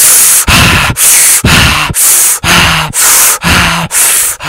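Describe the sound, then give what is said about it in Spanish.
During a guided breathing exercise, rapid, forceful hyperventilating breaths alternate in a steady rhythm, about two per second: harsh, loud inhales and exhales with no pauses between them, and no talking over them. “Vamos a hiperventilar.”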